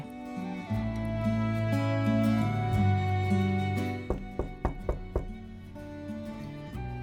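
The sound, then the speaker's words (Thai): Knocking on a door: about six sharp, evenly spaced raps in a quick series, coming after a stretch of soft, sustained musical tones that linger quietly underneath. “สียงเคาะประตูปลุกให้เธอตื่นจากผวัง แม่หนูผมทองถักเปียนั่นเอง”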